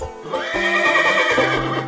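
A horse neighs loudly, a long shrill whinny lasting about two seconds, with a few low thumps beneath it and no one talking.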